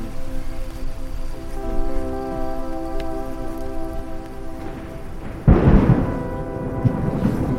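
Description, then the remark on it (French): A low, rolling rumble of thunder builds over steady rain in Singapore, swelling into a loud crack and roar of heavy tropical downpour near the end, with no voices. “Voilà, donc ça, ça c'est un, bruit qui est, qui est très courant à Singapour et qui va s'intensifier.”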